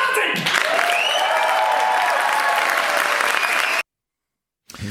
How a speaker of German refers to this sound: Wir nehmen den Applaus im Vorfeld auf.